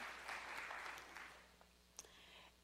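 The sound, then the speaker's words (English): A crowd at a worship service claps for a couple of seconds, a soft, steady patter of many hands that thins out toward the end, with no voices over it. They clap to show they have seen the TV shows House of Cards or Scandal. “I want you to clap if you've ever seen either of those two shows House of Cards or Scandal.”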